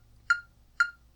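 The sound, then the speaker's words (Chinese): Two crisp, pitched metronome clicks, set to sixty beats per minute for guitar rhythm practice, evenly spaced about half a second apart, sound alone over a faint low hum, each sharp at the onset and quickly fading. “那因为现在速度很慢，我现在速度才设定六十，所以你可能觉得听八 bit 还还蛮舒服的，可是建议啦，还是要听回四 bit，就是一拍一个声音这样子。”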